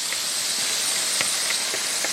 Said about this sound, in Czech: My dáváme to kuřecí na pánet, aby se tedy zatáhlo.